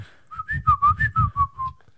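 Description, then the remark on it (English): A person whistles an imitation of R2-style robot droid beeps on cue after 'action': about eight quick, chirpy notes that hop up and down in pitch, then trail off in a short falling tone. “Beep, bop, boop, boop, boop.”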